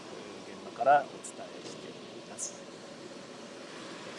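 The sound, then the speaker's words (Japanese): A fuel pump hums steadily while refueling a car at a self-service station in the morning, with snow forecast but not yet falling, a continuous low mechanical drone that runs throughout, with a person speaking briefly over it near the start. “運転している途中に車の給油ランプがつきまして、これはりやばいぞということで、今、まさに給油をしている状態です。”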